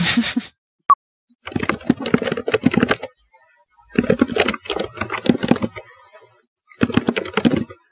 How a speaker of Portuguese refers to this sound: Tá, tá digitando?